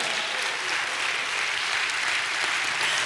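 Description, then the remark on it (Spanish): An audience breaks into sustained applause for God: a dense, steady wash of many hands clapping at an even loudness for about three seconds, with no voices standing out. “Dale un fuerte aplauso a Dios por eso, hermano.”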